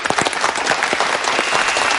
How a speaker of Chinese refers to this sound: 这一曲舞蹈跳下来，全场鸦雀无声，商界精英们就静静地坐在那里，接受了人生第一次现代舞的洗礼。舞蹈结束，他们齐刷刷站起来给我鼓掌。